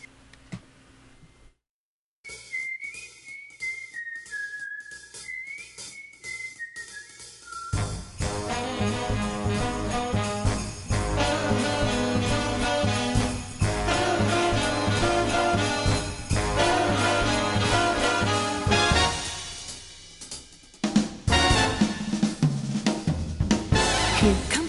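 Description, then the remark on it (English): A recorded Broadway-style holiday song plays: after a brief silence, a lone wavering melody line leads into a full, loud ensemble arrangement that carries steadily to the end, with no talking over it. “This is a real Broadway version. And listen at the end how they bring in some other songs.”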